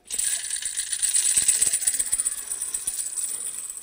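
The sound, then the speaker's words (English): A tambourine shaken steadily for several seconds, its bright metallic jingles shimmering continuously with small rhythmic pulses and no voices over it. “Can anyone not smile when you have a tambourine, especially one like this?”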